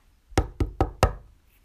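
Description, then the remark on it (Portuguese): Four firm, fairly loud knocks on a wooden door, the first alone and then three in quick even succession, with no voices around them. “O cheiro fez-lhe crescer água na boca e bateu à porta.”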